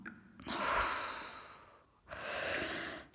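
Two long, deep breaths, each a broad airy rush that swells and fades, separated by a brief pause; fairly soft, with no talking.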